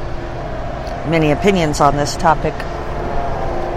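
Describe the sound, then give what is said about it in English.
A city bus known as the 16th Street trolley rumbles past on the street as a steady low engine drone running under the whole moment, while a person speaks briefly over it. “That's the sound of the 16th Street trolley going by.”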